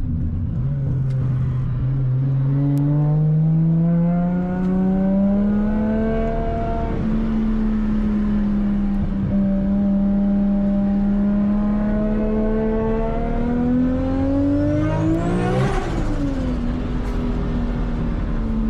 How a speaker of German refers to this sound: Der Sound ist wunderschön. Wie man den Turbo immer pfeifen hört.